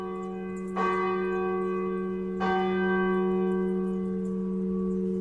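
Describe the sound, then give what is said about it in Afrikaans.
A large church bell rings out twice, each deep strike followed by a long, shimmering hum that sustains between the blows. Clear, with no voices. “wat ons kan navors deur middel van hierdie klok”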